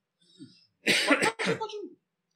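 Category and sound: human body sound, coughing and throat clearing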